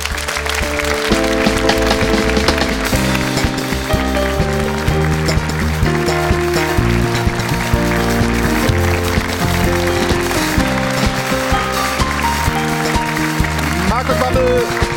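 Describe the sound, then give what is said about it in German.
Steady applause from the studio audience of the TV show Stahlwerk Doppelpass, welcoming guest Markus Babbel, mixed with upbeat live band music, both loud and continuous throughout, the clapping forming a dense crackling layer beneath the melody and rhythm. “begleitet vom Applaus und der Musik”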